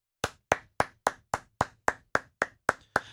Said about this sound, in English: Congrats to him. Please clap.